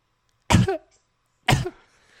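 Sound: coughing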